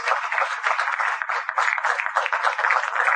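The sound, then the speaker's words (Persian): A crowd in a hall applauds steadily for about three seconds, a dense, even wash of many hands clapping at once with no pauses and no voices over it, honoring a festival speaker, founder of Pars Coders. “اما میخوایم تقدیر کنیم از سخنرانان اگر باشن توی سالن و هدیه که براشون در نظر گرفته شده ایمان قصفخری رو من فکر کنم تشریف ورده ولی تشویقش کنیم، بنیانگذار پارس کودرز.”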